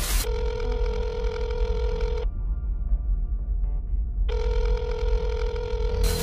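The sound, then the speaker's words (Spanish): A telephone rings loudly, two long electronic bursts separated by a couple of seconds of quiet, with a low hum running underneath throughout. “Y ese fue el inicio de lo que se convirtió en un trauma muy fuerte para mí que es escuchar el teléfono.”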